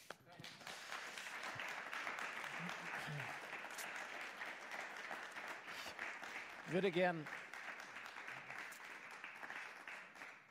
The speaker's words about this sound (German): Vielen Dank. Vielen Dank euch. Euer Applaus.